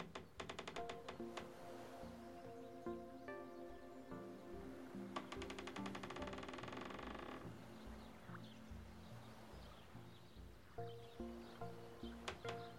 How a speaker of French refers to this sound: Puis, petit à petit, écoutez le clapotis de l'eau autour de vous. le craquement du bois du ponton sur lequel vous vous reposez.